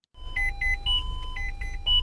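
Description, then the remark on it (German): A loud electronic emergency dispatch alert in Munich calls an ambulance crew to a retirement home where a 91-year-old man has collapsed. It beeps in a rapid repeating pattern of short tonal pulses, alternating between two pitches, over a low background rumble with no voices. “Wir wurden jetzt alarmiert in ein Altenheim in München zu einem Kollaps, männlich 91 Jahre alt.”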